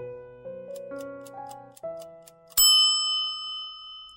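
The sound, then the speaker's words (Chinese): An alarm clock goes off early in the morning: soft stepped chime tones over steady ticking, then one loud, bright bell strike that rings out and slowly fades. No one speaks. “一大早，闹钟突然响起。”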